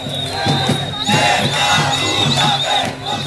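A large, mixed crowd of dissatisfied people shouting and chanting together in a 2013 street protest, a dense, loud roar of many voices with rising bursts of yelling and a steady high-pitched whistle running through it.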